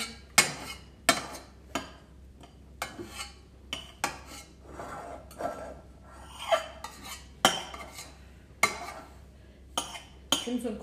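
A metal frying pan with crumbs in it and cutlery clatter and scrape in a quick, irregular series of clinks and rasps, with faint talk in the background.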